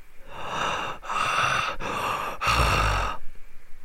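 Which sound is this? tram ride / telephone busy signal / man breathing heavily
man breathing heavily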